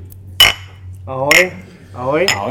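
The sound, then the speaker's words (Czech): Glasses clink sharply three times, about a second apart, during a toast in a garage. Each clink is followed by voices calling out a brief Czech greeting of "cheers" ("na zdraví") over a low steady hum. “Vyschlo tak na zdraví, hoši. Na zdraví.”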